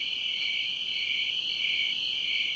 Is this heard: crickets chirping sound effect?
yes